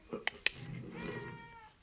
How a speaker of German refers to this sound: Das ist meine Katze.